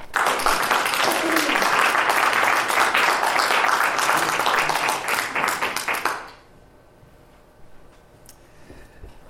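An audience applauds steadily for about six seconds to welcome a poet, a dense wash of clapping, then it quickly dies away into near silence with faint background noise.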